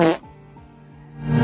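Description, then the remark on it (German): A low, buzzy fart-like sound that drags on for about a second with a wavering, stuttering pitch, bracketed by brief louder noisy bursts at the start and end. “Da hast du gefurzt?”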